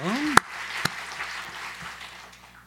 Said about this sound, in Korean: 네, 예, 와서 찬양해주고 또 더, 아, 이렇게 한국교회 위해서 한국교회 특별히 젊은이들에게 이렇게 참 찬양에 불을 붙여줘서 고맙다고 우리 한번 박수로 한번 고맙다고 한번 네, 네 고마워요. 고마워요.